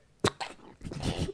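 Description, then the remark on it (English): A single sharp sneeze bursts out, followed by a brief breathy exhale and a short muffled vocal sound, with no other talk. “Bless you.”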